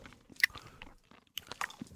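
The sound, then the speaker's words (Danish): Hard candy being chewed and crunched, with a series of sharp, irregular cracks and clicks, a loud snap near the start and another burst of crunching later, no voices. “Kan man smage det i det her bolsje her?”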